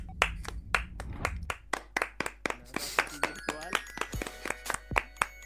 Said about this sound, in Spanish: Eh, eh, eh, son las 8. Están aplaudiendo, eh. Aquí, aquí poca gente ahí aplaudiendo, eh. Aquí, eh, donde yo vivo no aplaude nadie.